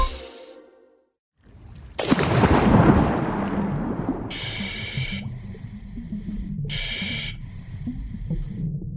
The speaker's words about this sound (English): Hey, Smarty Pants. In case you couldn't tell, I'm scuba diving in the ocean.